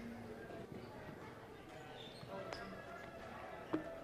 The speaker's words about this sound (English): Isn't it fun to hear all the little voices heading to children's worship?